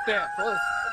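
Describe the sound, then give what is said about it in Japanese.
Chickens in a coop clucking and calling in a chorus, with a couple of harmonic squawking calls in quick succession over a steady high-pitched background tone. “これね、これねしばらく5分ぐらいこの鶏の鳴き声だけを皆さん聞いてください。”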